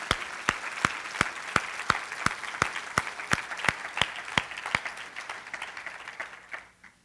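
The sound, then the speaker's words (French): Audience applause for the Récréation Haïti team, with a strong, steady beat of unison clapping over a dense wash of claps, about three sharp beats per second, then the applause thins and fades out at the end. “J'aimerais qu'on puisse leur donner une main d'acclamation à Récréation Haïti, à toute leur équipe.”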